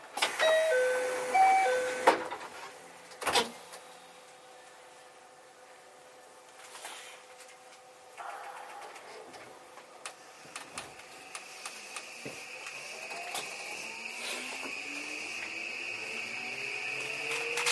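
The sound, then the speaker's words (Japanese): JR 323 series train doors closing: a chiming door tone, then a solid thud as the doors shut, followed by a rising electric motor whine and scattered rail clicks as the train departs, with its next stop at Osakajokoen station. “ドアが閉まりますドアが閉まりますご注意ください”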